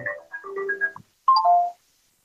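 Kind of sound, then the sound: signal or alarm, phone ringing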